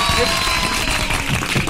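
A steady burst of applause for a guest at the close of the Jornal 96 radio news program, many hands clapping at once in a dense, continuous patter that holds at the same fairly loud level throughout, with a faint murmur underneath.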